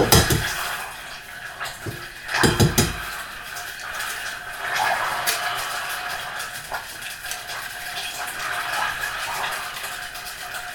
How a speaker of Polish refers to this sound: Jajka wbijamy ostrożnie, uważając, żeby żadna część skorupki nie dostała się do naczynia.